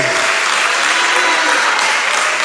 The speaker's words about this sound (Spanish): Ah, dele un aplauso. Dale un aplauso fuerte. Yo no sé si tiene gritos de júbilo hoy.